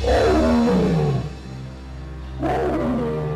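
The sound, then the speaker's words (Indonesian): A tiger inside a house in a village lets out two deep, rumbling roars, the first long and falling in pitch, then a short pause before another begins. Loud, with no talking. “macan itu wow, menangis di dalam rumah Bucia”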